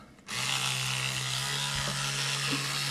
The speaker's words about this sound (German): Ich habe übrigens eine elektrische Zahnbürste. Ist irgendwie praktischer.